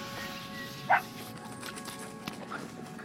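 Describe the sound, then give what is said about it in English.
A dog, Rover, gives one short, sharp bark at squirrels near the start, then falls quiet against a steady outdoor background hiss with faint scattered rustling. “I think your dog's onto something. Barking at squirrels again.”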